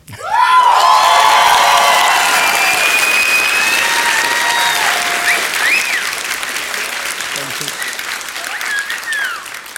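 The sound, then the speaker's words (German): A live crowd of about 6,500 people bursts into loud, sustained applause with shouts, whistles and cheering, a dense roar that holds steady for the full length and eases only slightly toward the end. “Und deshalb finde ich auch gut, dass ihr 6.500 auch dafür sorgt, dass man das genauso hört auf der Audiospur.”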